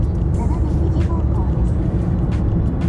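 A steady low rumble of car road and engine noise from unusually light traffic continues throughout, with no distinct individual vehicles passing by.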